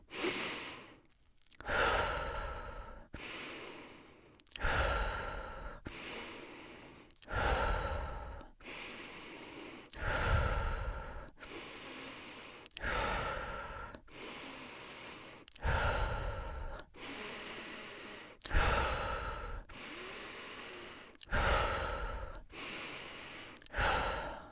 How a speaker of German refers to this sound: Die erste Aufgabe, die du hast, ist atmen. Wir atmen zehnmal tief ein und aus.